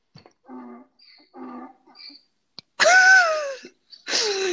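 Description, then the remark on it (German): An Alexa smart speaker plays a donkey braying: a few quieter wheezing rhythmic breaths build into loud, harsh, honking cries that slide downward in pitch, with no talking over it. “Alexa, wie macht ein Esel?”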